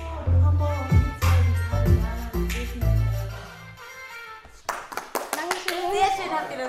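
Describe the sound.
Loud, bass-heavy music plays and then stops, followed by a short burst of several hand claps at an uneven pace, with children's voices chattering close by.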